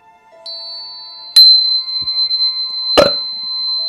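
An angel tuning fork is struck a few times as a cue to settle and begin a short prayer, each sharp tap leaving a clear, steady high ringing tone that hangs on and layers without fading. No one speaks.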